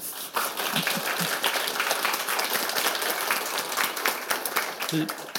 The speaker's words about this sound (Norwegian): Gi han en stor applaus.